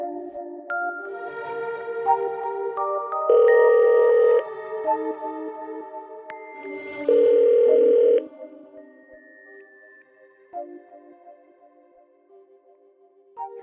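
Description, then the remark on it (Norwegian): Two steady ringback tones of an outgoing phone call to a defence lawyer, each about a second long and several seconds apart, ring out clearly over soft tonal music in the background. “ringer en av forsvarerne til 32-åringen,”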